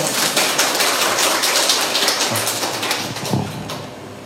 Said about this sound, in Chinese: 来，谢谢，大家给他一点掌声，好吧？